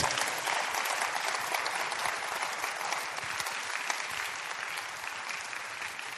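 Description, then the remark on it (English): A crowd claps for Jesus steadily for about six seconds, a dense wash of many hands at a loud, even level without letting up. No one speaks over it. “Clap for Jesus.”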